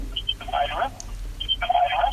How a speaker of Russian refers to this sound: Так, выключите, э, радио выключите, чтобы не фонило. Так, у нас... Э, вы когда нам звоните, выключайте радио, чтобы не фонило, потому что наш оператор эфира сразу вынужден вас выкидывать, ну, в хорошем смысле, потому что э, эхо идет.